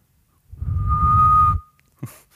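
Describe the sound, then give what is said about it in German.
A single steady, high whistled note, made by a person as a quiz buzzer sound, held for about a second, fairly loud with a breathy rush beneath it, then a brief soft noise after it stops. “Wollt ihr kurz absprechen, was möchtet ihr für ein Buzzergeräusch machen, wenn ihr quasi buzzern wollt?”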